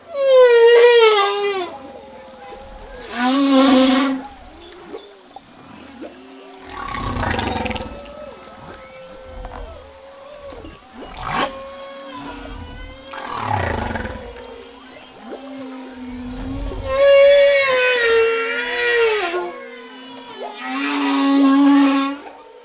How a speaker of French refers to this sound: Et puis après, donc ça, ça fait des phrases. Il y a des phrases successives et elles sont répétées plusieurs fois pendant 15-20 minutes, quoi. Vous écoutez Des baleines à bosse situées à Madagascar.